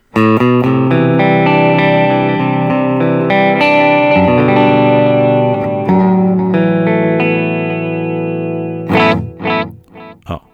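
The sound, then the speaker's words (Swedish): Electric guitar chords ring out loud and sustained through delay and a shimmering modulation effect, the tail slowly fading before a few short, choppy strums close it out. “Jag hör att det är lite rörelse ja, precis, på svansen ja.”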